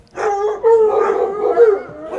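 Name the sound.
dogs howling and barking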